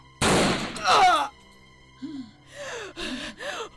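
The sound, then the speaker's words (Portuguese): A single loud gunshot, fired at a person who is not killed by it, bursts out with a rough, noisy tail, followed by a second surge of noise and then strained gasping and groaning vocal sounds. “Não morreu com um tiro traste!”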